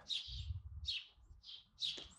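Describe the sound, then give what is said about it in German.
A bird chirps four times in quick, fairly regular bursts, each a bright high twittering call, with a low rumbling background beneath and no talking. “Mehrere Zwitscher heißt fantastischer Wein, kauft ihn sofort.”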